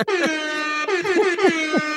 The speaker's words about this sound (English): Hip hop air horns.